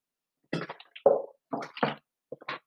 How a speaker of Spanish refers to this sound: Ah, qué rico el agua, qué rico tomar agua. De hecho, con respecto a que acabo de tomar un poco de agua